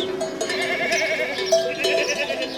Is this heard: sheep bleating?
yes